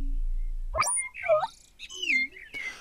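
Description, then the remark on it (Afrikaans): A golden mechanical nightingale's warbling song, sung over and over: a quick run of bright, swooping whistles and chirps over about two seconds, fairly loud, with no talking. “oor en oor sing die goue nagemaakte nagtegaal.”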